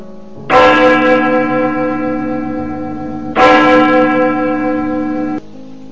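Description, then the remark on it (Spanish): A church bell rings loudly twice, about three seconds apart, each strike bright and metallic with a rich, humming tone that lingers steadily until the next. “Solo suena largo silencio la campana que tocan los ángeles.”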